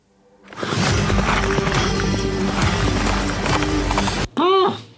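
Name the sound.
horse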